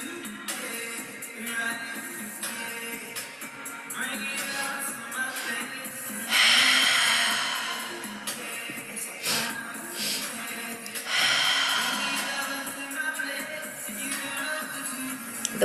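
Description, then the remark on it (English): Slow, exaggerated deep breathing as a breathwork exercise, with two long airy swells rising and fading over a soft, steady background, and no talking. “more you exaggerate your being and the more you exaggerate your breathing, the quicker your subconscious will allow you to tap in.”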